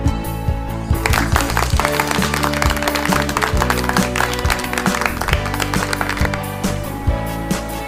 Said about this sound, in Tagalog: Mahusay! Palakpakan ninyo ang inyong mga sarili.